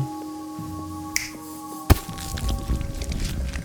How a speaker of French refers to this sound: Un claquement de doigts et quelque chose que je devinais immonde roula sur le sol butant dans les pieds de la dame qui faillit tomber en tentant de l'éviter.